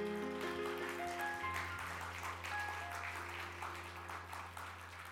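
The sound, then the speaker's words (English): A church audience at Tri Cities Church claps steadily as a hand clap of praise to God, a dense wash of many hands that holds throughout, with sustained keyboard or organ tones and a low hum underneath. “Well, let's give God a hand clap of praise one more time.”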